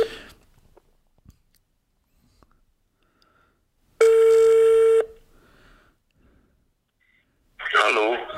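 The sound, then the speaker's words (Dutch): On an outgoing phone call, a telephone ringing tone sounds once, loud and steady for about a second, while waiting for the other person to pick up. It follows a stretch of near silence with a few faint clicks, and a brief burst of voice comes at the end. “Hopelijk pakt die op. Horen jullie dat?”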